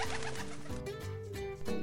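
Low, throaty pigeon cooing, a few rolling coos in quick succession, fairly loud with no voices around.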